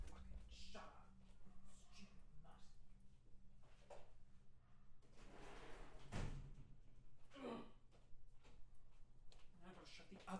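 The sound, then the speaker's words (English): A door is pushed shut partway through, landing as a single solid thud amid shuffling movement and breathy sighs, with a low steady hum underneath throughout. “I'm just going to shut that door.”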